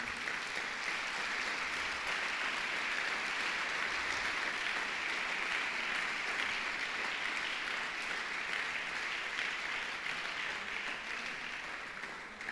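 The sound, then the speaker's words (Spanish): A church audience applauds the Lord steadily for about twelve seconds, a dense, even wash of many hands clapping at constant loudness that eases slightly at the very end, with no voices heard. “Dale el mejor aplauso que le puedas dar al Señor.”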